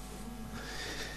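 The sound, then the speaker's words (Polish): The speaker's own mobile phone rings with a warbling, whinny-like ringtone, fairly faint and continuous through the brief moment, with no one talking over it. “To mój telefon jest.”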